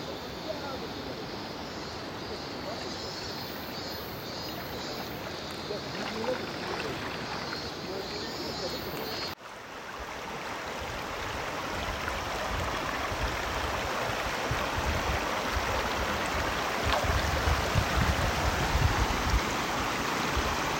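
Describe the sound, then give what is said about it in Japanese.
A mountain stream rushes steadily through a river gorge beside the riverbank in cool air, a dense, continuous roar of flowing water that briefly cuts off midway, then resumes a little louder and fuller. “こんにちは朝から来ているこの川べり川の渓谷ですね”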